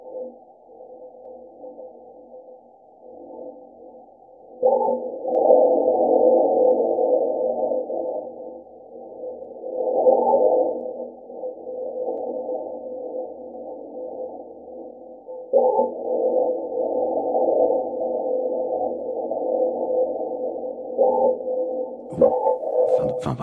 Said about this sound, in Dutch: ik weet niet of het echt een microfoon was, of als ze gewoon de trillingen die gedetecteerd zijn omgezet hebben in het geluid. Maar dit is het geluid, ze noemen het de clinks en de klonks of Mars.